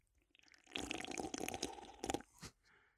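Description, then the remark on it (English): A wet slurp of a lemon-flavored drink lasting about two seconds, with gurgling, crackly sucking sounds and a final short sip, no one speaking. “I'm pretty sure everyone's turned off the podcast by this point, especially with that horrid slurping sound.”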